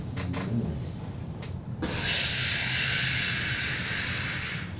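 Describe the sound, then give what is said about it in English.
A low rumble gives way to a single sharp knock of the small basket door of a hot air balloon swinging shut, quickly followed by a loud, steady rushing hiss like a gas burner firing. “Uh, they open up a little door. Oh, okay. Swings open and you walk in.”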